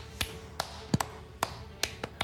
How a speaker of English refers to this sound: And slowly but surely, every person in the room starts to contribute and they're clapping and they all stand up in an uproar and give each of you a round of applause and a standing ovation